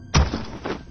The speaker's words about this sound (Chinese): 重物落地，激起一阵烟尘。小鱼和程雪透过烟尘去看，一眼就认出来了。躺在地上的这个人事不知的东西，正是之前小人得志的齐礼。